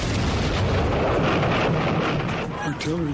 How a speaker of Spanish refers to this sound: Ardenas. 16 de diciembre de 1944, 5 y media de la mañana. Las tropas norteamericanas se atinan en madrigueras heladas cercanas a la frontera belga. El silencio del bosque se ve interrumpido por una tormenta de explosiones.